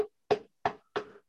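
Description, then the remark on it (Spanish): Four firm knocks on a door in an even, steady rhythm, fairly loud, each one a short hollow thud with a brief ring, and no voices around them. “están tocando la puerta.”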